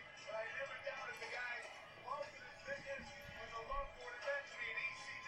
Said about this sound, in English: You can hear them, the crowd singing it. Like over the dub, it's you can actually.